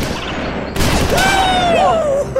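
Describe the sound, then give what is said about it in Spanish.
A sudden loud gunshot cracks out during target shooting practice in a forest, followed by a rough, rumbling tail and a high wavering whine that bends and fades over about a second. “graban un vídeo en el que practican tiro en un bosque con otros dos amigos”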